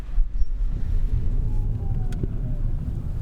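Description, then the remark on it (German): An electric Smart car pulls away almost silently, with a steady low road rumble and a faint, thin electric whine rising in pitch, plus a single soft click partway through. “Wir können ja erstmal ein Stück losfahren. Also vermutlich wird man einfach nichts hören.”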